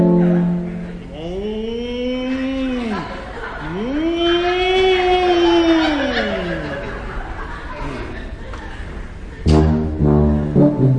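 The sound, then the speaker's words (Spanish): A person on stage at a concert imitates a cow with two long, drawn-out moos that rise and fall, loud, followed near the end by a short burst of other vocal noise. “la vaca, el cuervo y, lo que digo, ¿eh? un auténtico zoológico eh, sobre el escenario.”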